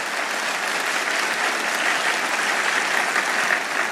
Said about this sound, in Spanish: La promesa que Él te ha dado, aplauda al Señor fuerte.